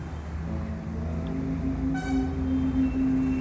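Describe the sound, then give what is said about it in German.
Steady rumble of street traffic with engines running in a busy small town in India by the Ganges, heard while walking from the boat landing, and a horn sounding clearly around the middle and holding through to the end, loud. No one speaks. “Wir gehen die kurze Strecke vom Bootsanleger durch die geschäftige kleine Stadt zur Yoga School zu Fuß.”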